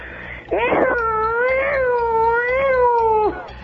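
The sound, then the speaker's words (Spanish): A voice imitates a wailing prison escape alarm with one sustained, fairly loud howl that wavers up and down for about three seconds and sounds almost like a yowling cat. “Sonido de la alarma cuando hay una fuga de la cárcel.”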